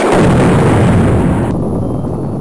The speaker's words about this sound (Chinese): 后来这一战就爆发了，老史参军了。就躲在战壕里咔咔写论文呢，那大炮咚咚响。